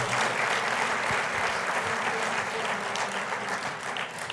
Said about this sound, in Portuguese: Aleluia. Dê para Jesus mais uma forte salva de palmas.